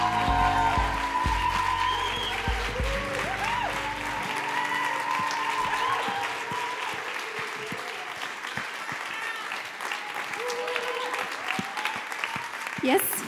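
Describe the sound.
Warm, sustained applause from an audience welcoming a young speaker, steady and fairly loud for over ten seconds, with a few cheers and voices mixed into the clapping.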